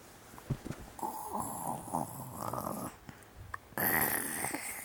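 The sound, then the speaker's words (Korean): A child's voice imitates their dad snoring during a reading of Peter and the Wolf, making two drawn-out, rasping snore sounds, the second louder and harsher, with a short pause between them. “아빠 코 고는 소리 들어봤어?”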